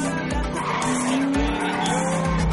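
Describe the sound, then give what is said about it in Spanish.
A Porsche sports car races at high speed through an industrial estate with another car close behind, its engine roaring steadily while tires squeal and skid in sustained, shifting high-pitched whines, loud throughout the short burst with no talking. “El Porsche de Navas recorre el polígono a gran velocidad con el coche de Mikkel detrás.”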